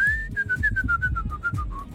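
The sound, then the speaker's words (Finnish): Someone whistles, holding one note before breaking into a quick run of short, evenly spaced notes that drift slowly downward, with a low background rumble and no talking. “Koita vihellellä himas ja panna se radio, niin ei ei se vaan lähde.”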